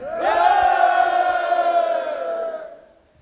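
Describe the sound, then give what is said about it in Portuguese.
A group of voices shouts together after a count of one, two, three, letting out one long, loud unison shout that starts abruptly and holds steady for over two seconds before trailing off. No counting is audible, only the shout itself. “Se um, dois, três e grita aí, gente.”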